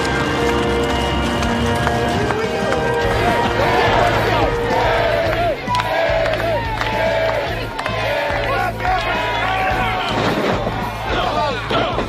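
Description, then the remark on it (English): Horse hooves clop in an irregular, steady rhythm as wrestler Lawler rides a horse at his 50-year celebration, amid a loud, dense wash of crowd noise, with voices murmuring and occasional sharp thumps throughout. “And he does get on the horse.”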